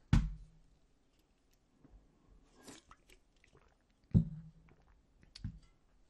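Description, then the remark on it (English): A person takes a drink, with a few sharp knocks of a cup or glass being handled and set down, plus soft clicks and faint swallowing noises in between. No one speaks. “Let me let me take a sip of my drink here.”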